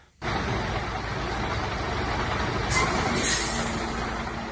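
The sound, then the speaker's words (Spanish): Heavy trucks carrying humanitarian aid rumble steadily as they arrive at the border crossing into Gaza, engines droning, with a brief hiss of air brakes midway through; no voices, just continuous low traffic noise. “Esto que escuchan son los camiones llegando a la frontera, eso sí, a cuentagotas y hasta ahora es difícil saber si están entrando en la franja.”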